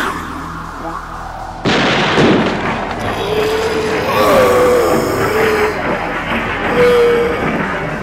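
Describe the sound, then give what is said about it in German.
A single loud gunshot in an old house cracks out suddenly after a brief quiet stretch, followed by a sustained rumbling roar and a faint wavering whine, with no voices present. “Die Polizei hörte einen Schuss im alten Haus der Tillinghasts und fand uns dort.”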